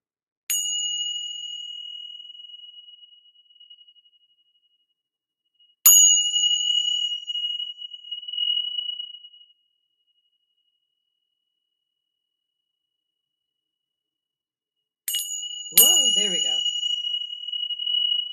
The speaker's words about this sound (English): One, if you have AirPods on or whatever earbuds, whatever, clear your ears because I'm going to just clear the room with my with my Tibetan bells. So we're just going to clear energy real quick.